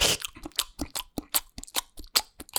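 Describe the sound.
Loud open-mouthed chewing while eating, a rapid run of wet, crunchy smacks and lip-slaps repeating roughly every quarter second, with no talking.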